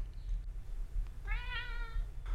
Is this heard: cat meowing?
yes